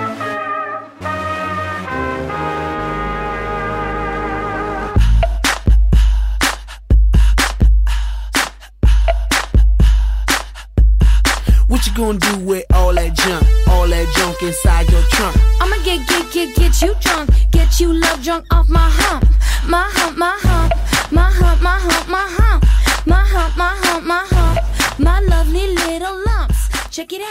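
A hip-hop pop track plays loudly, opening with a few seconds of sustained synth chords before a heavy, punchy beat with deep bass and layered vocals kicks in and drives steadily on.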